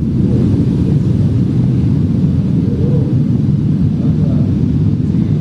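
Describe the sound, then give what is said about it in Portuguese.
A deep, continuous rumble of explosions from bombing in the Gaza Strip, kilometres away, reverberating, a low, steady roar that rolls on without distinct individual blasts, with no voices present. “Chega a arrepiar, trata-se de uma reverberação das explosões que acontecem a quilômetros de distância.”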